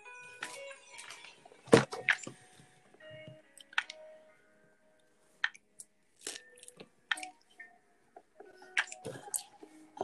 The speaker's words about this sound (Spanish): ¿Cuántas fresas me quedan? Me quedan dos. Me estoy comiendo todas las fresas.